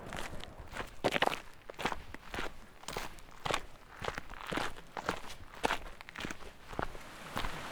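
Steady footsteps crunch along a dirt trail at a regular walking pace, each step fairly loud, with a faint rustling texture between strides and no talking.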